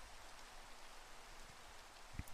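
Soft, steady rain falls as a continuous hiss with faint patter, heard alone and fairly quiet, with one sharper drip or tap standing out near the end.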